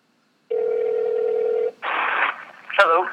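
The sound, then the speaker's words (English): Telephone keypad dialing tones as someone calls a guest on speakerphone: a steady electronic tone holds for about a second, then gives way to short bursts of noisy tones, and a brief voice-like sound comes at the end. “just let me give him a call. Hang on.”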